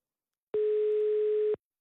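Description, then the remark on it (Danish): One steady telephone ringing tone while a call is placed to Bengt Holst: a single flat, mid-pitched beep lasting about a second, with nothing else around it and no voices. “Bengt Holst, som vi lige skal ringe op nu”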